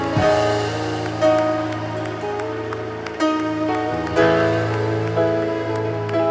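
Sustained crowd applause for the king (God), a dense crackling clatter, continues over steady instrumental music with held notes and a deep bass line, with the loudness surging in waves every second or so.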